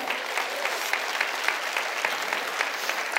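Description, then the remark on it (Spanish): An audience applauds for Jesus Christ during a sermon, many hands clapping in a dense, continuous wash with sharper individual claps poking through, even in loudness throughout. “Vamos, déselo fuerte a Jesucristo.”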